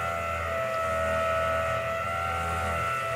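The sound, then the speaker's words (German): A power drill runs continuously for a few seconds in the flat below, a steady droning whine over a low rumble, fairly loud and unbroken, with no voices. “Vielleicht bohrt er irgendwas an die Decke.”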